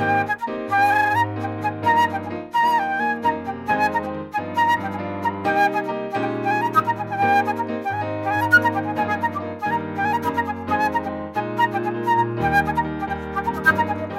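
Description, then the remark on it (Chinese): A flute carries a lively, bright melody over steady piano chords and bass notes, with a driving repeated rhythm throughout. The music plays continuously for about fourteen seconds with no talking. “那我我们现在就来听听看长笛加钢琴的版本好了哈。”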